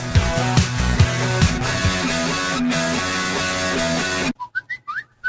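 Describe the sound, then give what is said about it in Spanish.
Busy music plays, then cuts to a short whistled jingle marking the start of the advertising break: four or five quick, clear notes with upward slides, heard alone. “No, no es tu teléfono, es el inicio del espacio publicitario.”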